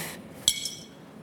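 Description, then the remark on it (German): A single bright, crisp clink of glasses touching in a toast, with a short ringing tail that fades quickly into quiet background. “Meine Kollegen haben alles normale Gläser. Ein Prosit, ein Prosit der Gemütlichkeit. Prost, ihr Säcke!”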